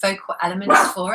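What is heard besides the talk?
dog barking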